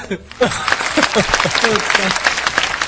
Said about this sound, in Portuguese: Obrigado. Parabéns agora com eco. Aplausos é, absurdos.